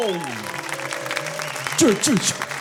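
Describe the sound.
An audience claps steadily in a dense patter to salute the behind-the-scenes team, while voices talk and call out over the applause and the clapping swells briefly near the end.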